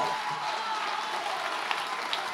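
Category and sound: crowd, audience applauding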